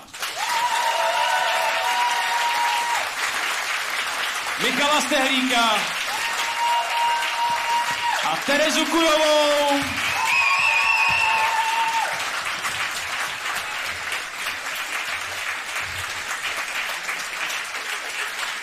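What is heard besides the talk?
audience applause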